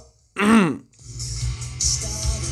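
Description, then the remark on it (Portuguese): A single loud, harsh throat clearing from cigarette smoking, short and strained with a voiced rasp, followed by a steady hissing, rumbling background noise. “Winston, o cigarro que não te deixa com pigarro.”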